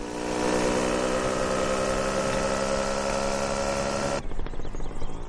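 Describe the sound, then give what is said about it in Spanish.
A small motocross bike engine drones steadily and loudly, with strong harmonic buzzing, as it is ridden fast through a large olive grove in the film El olivo, then cuts off abruptly near the end, leaving a rougher, sputtering tail. “Alma, con una moto de cross, recorre velozmente un gran olivar.”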